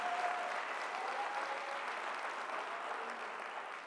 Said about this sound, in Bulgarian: ако ръкопляскаш, ръкопляскай, като че наистина вярваш.